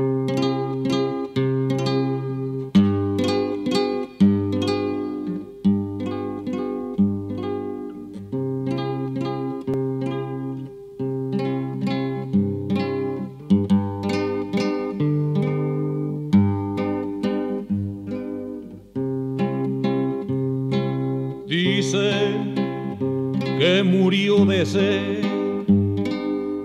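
An Argentine folk song plays at a steady, full volume, with plucked strings carrying a continuous melody throughout and no one talking over it.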